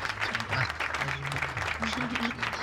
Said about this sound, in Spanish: No, no, no, no me aplaudas,